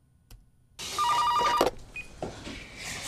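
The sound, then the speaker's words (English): A telephone rings with a single rapid, trilling burst, fairly loud, then cuts off, leaving a low background hum with no one speaking; it is a morning call from Hoyt of Hoyt Foods. “And in the morning, as he is getting set to tell her, they get a phone call, and it is Hoyt of Hoyt Foods.”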